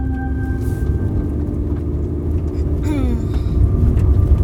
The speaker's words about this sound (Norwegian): har kjørt bilen opp en mørk skogsvei og finner et skjult område hvor de kan parkere.